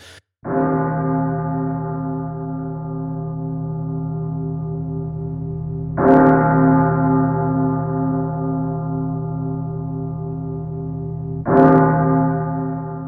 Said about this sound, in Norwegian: Så mm. her kommer tre klokker til deg